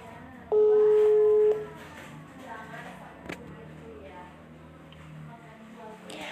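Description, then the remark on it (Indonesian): A single loud, steady telephone ringing tone of a call placed to a guest at home lasts about a second, then stops, leaving a faint murmur of background sound. “Karena narasumber kita lagi di isolasi mandiri di rumah, jadi kita ngobrol langsung lewat telepon aja ya. Yuk langsung aja hubungi”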